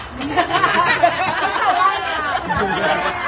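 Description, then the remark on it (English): Dense crowd chatter fills a busy restaurant and bar in San Diego at night, customers eating indoors, many overlapping voices blending into a steady, lively hubbub with occasional bursts of laughter. “That's the sound of a crowded restaurant and bar last night in San Diego, where lots of customers were seen eating indoors and not social distancing.”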